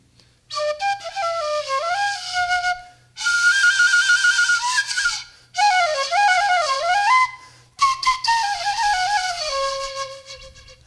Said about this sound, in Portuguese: Ele sai o som da transversal, mas ele é um simulado, ele simula a transversal.